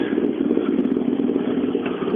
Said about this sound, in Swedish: Nu har vi faktiskt första, första fyrhjulsdrivna bil inne. Vad bra! Det är Nyström som har tagit sig ända från Ludvika hit.